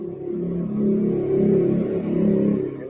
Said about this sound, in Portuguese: não sei de onde é esse barulho, não é aqui. Passou uma moto aí